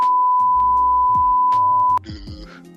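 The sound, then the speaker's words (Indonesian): A long, steady censor bleep holds one pitch for about two seconds, sounding over a muffled background. It cuts off sharply, and other sounds carry on after it. “wajib wajib di sensor ini pak wajib sensor ini ntar gue tulis dulu ya ini tit, ini bunyinya sensornya panjang nih kayaknya iya tit”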